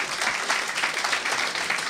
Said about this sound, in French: J'aimerais solliciter l'aide du public pour donner une bonne main d'applaudissement, plein d'amour à l'honorable